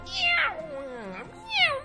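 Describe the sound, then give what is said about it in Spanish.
A cat named Mirri meows twice, clear: a long drawn-out meow that slides downward in pitch, then a shorter, higher meow after a brief pause. “eso fue un mensaje patrocinado por un gato.”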